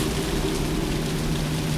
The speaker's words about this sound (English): And of course, it's still raining.